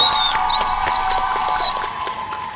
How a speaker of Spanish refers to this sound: Aplauso, aplauso